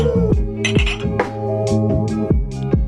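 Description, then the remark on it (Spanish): Ceramic coffee mugs clink together several times in quick, uneven succession, each bright tap ringing briefly. The sound is fairly loud, with a steady tonal hum underneath and no talking. “Saca tu tazón.”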